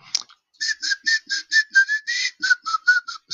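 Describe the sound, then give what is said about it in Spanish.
Someone whistles a bouncy disco tune, an instrumental dance song of the hustle dance craze, about a dozen short, breathy notes in a steady dance rhythm, with no talking over it. “No sé silbar.”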